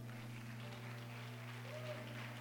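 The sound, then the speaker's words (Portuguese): An audience applauds the Lord in a steady, dense wash of clapping that holds an even level throughout, over a low sustained keyboard or organ drone. “Aplauda o Senhor, aplauda.”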